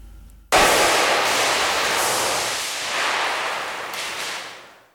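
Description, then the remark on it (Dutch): A paper horn made of 200 gsm Fabriano Academia drawing paper gives one long, harsh, breathy blast that starts abruptly and holds for about four seconds, loud and rasping with a slight swell before tapering off. No talking. “De toeter. Wederom Fabriano Academia papier 200 grams.”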